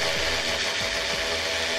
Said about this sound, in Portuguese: Peninha picotava com o berbequim, e mal, porque estava tudo às escuras e porque não tem jeito nenhum